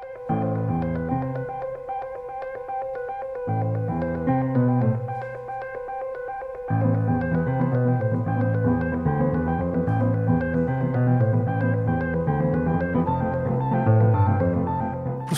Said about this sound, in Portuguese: eu escolhi este, esta obra porque usa pianos acústicos com música eletrónica de inspiração quântica